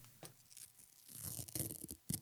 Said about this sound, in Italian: È più delicato questo, no? Hai sì, è molto più delicato. infatti è il suono di una madre che sta al- slacciando il pannolino a suo figlio. Anche quelli hanno il strip strap.